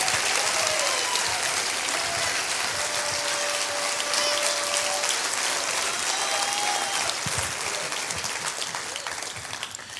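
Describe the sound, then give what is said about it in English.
A church audience applauds steadily for about ten seconds at the pastor's call during a sermon, a dense, continuous wash of many hands clapping at once that holds loud throughout and eases slightly at the end. “Come on, if you receive that, clap your hands and say, I got it, Pastor.”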